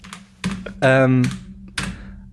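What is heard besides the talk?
computer keyboard typing clatter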